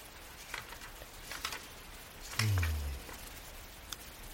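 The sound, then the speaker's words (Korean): Soft, steady evening rain patters faintly in the background, with scattered droplet ticks and one louder, low dull thud near the middle. No voices are heard. “난 빗소리를 배경으로 이 시의 마지막 연을 여러 번 읽었다.”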